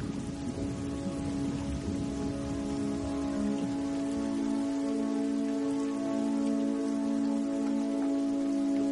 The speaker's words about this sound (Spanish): Más tarde está lloviendo y Rosa llega en su canoa hasta la casa de Agustín, el cual le está esperando en el embarcadero.